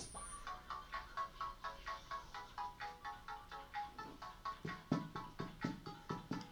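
A short, bright jingle of the radio program Inter social y cultural on PSN Tecate 620 AM: quick repeated electronic notes in a steady bouncing rhythm, like a ringtone melody, with deeper thumping beats joining near the end. No one speaks.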